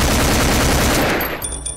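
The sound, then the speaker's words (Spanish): A rapid burst of automatic gunfire, loud, with shots rattling in quick succession before trailing off into a sharp, ringing tail. No voices are heard. “Lo matan a balazos.”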